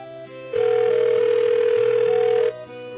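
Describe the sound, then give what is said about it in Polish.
A single steady electronic ringing tone from a mobile phone calling a saved contact sounds for about two seconds, clear and fairly loud, over soft background music with no talking. “Chwyciła leżący obok telefon komórkowy i z książki kontaktów wybrała literkę T. Tim. Połącz.”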